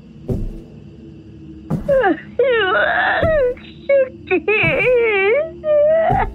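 A woman cries and wails in long, quavering, high-pitched moans, rising and falling in several drawn-out bursts with short breaks between, loud and close.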